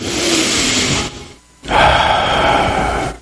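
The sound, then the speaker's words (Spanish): A deep breath: a full, airy inhale of about a second, a short pause, then a longer, strong exhale. No one speaks. “Respira, respira un momentico. Toma una respiración profunda.”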